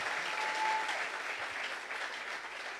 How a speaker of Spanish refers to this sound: Que alguien aplauda al Señor. Fuerte ese aplauso.